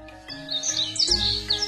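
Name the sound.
birds chirping and singing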